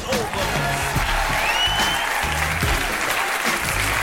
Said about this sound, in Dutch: En hier is uw gastheer van vanavond. Geef hem een groot applaus.